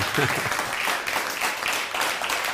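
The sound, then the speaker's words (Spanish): Steady applause from an audience, given for viewers across the Mexican Republic during a YouTube and Facebook broadcast, a dense crackling wash of many hands clapping at an even loudness throughout, with a brief voice underneath near the start. “Fuerte aplauso a toda nuestra República Mexicana hasta donde nos están viendo en todos los estados.”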